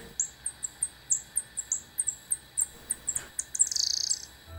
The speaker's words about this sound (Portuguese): Uma dica: é um animal. Ah, uma cigarra? Não, mas uma dica mamífero que vive em cavernas. e muito difícil. Que som é esse, hein? Esse animal é um. morcego!